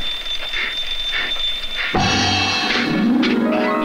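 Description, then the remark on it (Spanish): A shrill alarm clock, won as a school prize, rings continuously with a steady high-pitched tone, then a louder clattering burst and a rising electronic whine take over midway, loud with no voices. “¿No ves que es el despertador?”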